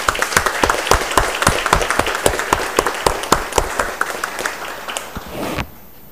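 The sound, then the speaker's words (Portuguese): A crowd at a city council session, including councillors, stands and applauds a group of young people, with sharp, dense claps overlapping in a steady burst for about five and a half seconds before stopping abruptly. No one speaks. “Então, eu convido a todos que possamos ficar em pé e aplaudir esses jovens.”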